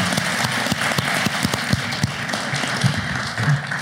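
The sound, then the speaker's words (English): A crowd applauds the panelists at an evening event steadily, many hands clapping in a dense, even wash of sharp claps that stays loud for the whole few seconds, with no one speaking. “Please give them a round of applause and give yourselves a round of applause.”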